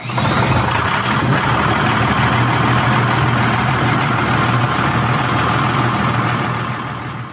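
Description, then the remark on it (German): The new six-cylinder Eco Power diesel engine of a Fendt 700 Vario tractor runs steadily at a low idle, a loud, continuous rumble with no speech, easing off slightly at the very end. “Unter der Motorhaube brummt aber nicht wie vorher ein Deutz-Motor, sondern ein neuer Sechszylinder von Eco Power.”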